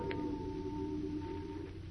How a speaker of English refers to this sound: the two youngsters hear their own hearts beat loudly above the muffled hum of activity from the basement below, and the faint, dreary foghorns on the shrouded river beyond the windows.